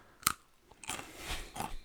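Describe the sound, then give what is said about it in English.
A sharp crunch as a pretzel is bitten, followed by a few seconds of steady, rustly chewing, with a smaller crackle near the end. No one speaks. “what's with the pretzels?”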